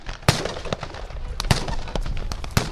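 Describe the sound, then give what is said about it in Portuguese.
Sharp firecracker and firework bangs go off irregularly, several loud cracks with smaller pops between them, over a constant rumbling background, as young Palestinians answer an army's rubber bullets and gas grenades with pyrotechnics. “Os jovens respondem às balas de borracha e às granadas de gás com artefactos de pirotecnia.”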